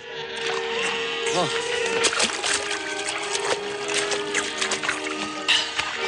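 Water splashes and sloshes as a man dunks his head into a water trough at an oasis with palm trees where a flock of sheep is drinking, with bursts of churning liquid over a steady background hum.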